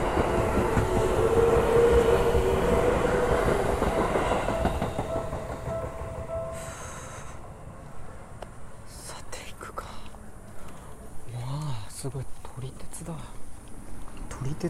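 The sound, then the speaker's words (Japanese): A train passes a station at night, its lights glaring, rumbling with a steady metallic squeal, the roar gradually fading away and leaving faint clicks and soft, whispery voices in the background. “あ、だなるほどね闇夜に浮かぶ駅と電車が通ってるんだねそういうのもあるんだね”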